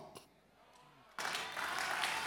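A brief quiet pause gives way to a sudden burst of audience applause, dense steady clapping from many hands that fills the rest of the moment at full volume.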